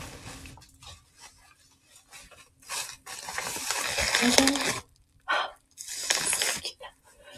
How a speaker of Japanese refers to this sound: ではですね、えー、英字新聞、とっても素敵な 放送紙の中に包まれたギフトをですね、開けていこうと思います。なんで、ちらっと見ずに行こうと思います。